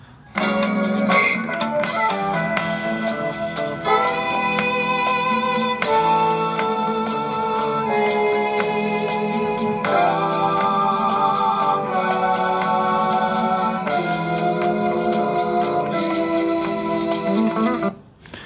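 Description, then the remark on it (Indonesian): A jazz recording, a piece later sampled into hip hop, plays steadily at full volume, with sustained harmonic chords and melodic lines shifting every few seconds, then cuts off abruptly near the end. No one talks over it. “menurut gue karya yang eksplisit sebenarnya jazznya nggak nyangka kan disampel jadi hip hop gitu loh Ntar gue cariin dulu ya Nah, ini gue langsung arahkan ke bagian yang kalian harus denger ya.”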